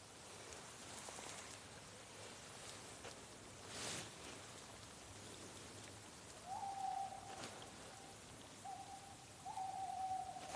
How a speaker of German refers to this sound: Das ist jetzt. Das war ein Waldkauz. Waldkauz? Der wird immer gespielt in Gruselfilmen. So groß ungefähr. Ja. Und hat ganz schwarze Augen. Sieht von der Farbe ähnlich aus wie der Uhu. Deswegen verwechseln den ganz viele.